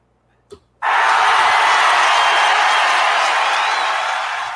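A canned applause sound effect bursts in after a brief click, a dense, loud wash of clapping that holds steady for several seconds and fades only slightly at the end.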